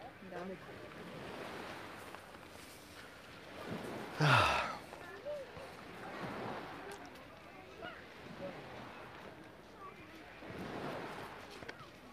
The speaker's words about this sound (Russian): Слышно прибой? А?